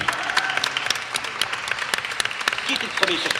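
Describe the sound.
A small group, the team of a student science show on a university radio station, applauds themselves for the week in a steady burst of applause, with dense overlapping hand claps sustained throughout; a few voices and cheers mix in beneath the clapping.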